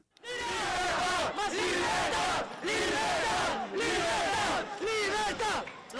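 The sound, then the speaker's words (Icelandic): A crowd of young men protesting at night in Logroño, northern Spain, against Spain's travel restrictions and curfews, loudly chants "freedom" in unison, many voices repeating it in steady rhythmic bursts, about five times, with brief breaks between shouts. “Frelsi, frelsi, frelsi, hrópa ungu mennirni sem mótmælti í nótt í Logroño á norðu spáni.”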